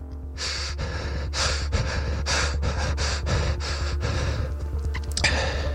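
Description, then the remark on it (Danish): Quick, shallow breaths repeat in a steady rhythm, roughly ten soft airy puffs, over a low constant background hum with no talking, from a person sitting completely still in bed at night, trying to breathe as shallowly as possible. “jeg sidder fuldstændig stille i min seng og forsøger at trække vejret så lavt som jeg overhovedet kan.”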